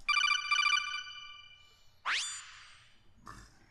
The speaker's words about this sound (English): Uh, hang on. I think I'm getting another call.